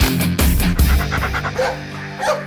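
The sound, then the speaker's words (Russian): A dog pants rapidly and steadily in the studio of Radio Komsomolskaya Pravda, a run of quick breathy huffs lasting a couple of seconds, with faint whimpering tones mixed in and no talking. “Зачем собаку в студию притащили?”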